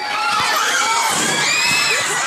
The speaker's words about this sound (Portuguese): Gritaria, correria, as imagens feitas pelo celular de um aluno mostram os colegas do sexto ao nono ano que se uniram para destruir a escola. É o caíque presidente Tancredo Neves, em Valparaíso, Goiás, na divisa com o Distrito Federal.